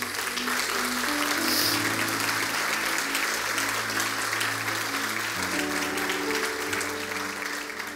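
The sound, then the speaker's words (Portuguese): An audience applauds for the Lord in the morning, steadily for several seconds, a dense, even wash of clapping at constant loudness, with a low sustained musical tone underneath and no talking. “Você pode dar um aplauso ao Senhor nessa manhã.”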